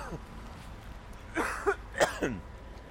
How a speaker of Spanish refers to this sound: La ventaja que tiene ir grabando por la calle es que puedo quitar el micro para toser y toser para el otro lado.